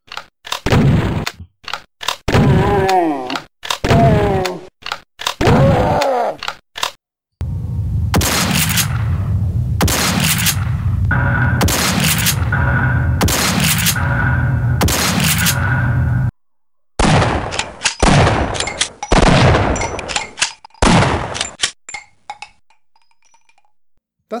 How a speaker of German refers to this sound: Starten wir mal mit den verschiedenen ähm, ja, Shotgun-Geräuschen, ne?